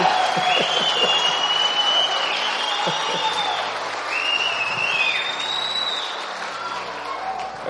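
A sustained round of applause from a church audience, given in praise of God for the lives of church members, dense steady clapping lasting several seconds, with a few high voices or whoops rising over it before it slowly tapers off.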